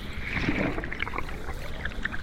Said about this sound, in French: J'entends comme de légers bruits de vagues et un très léger murmure.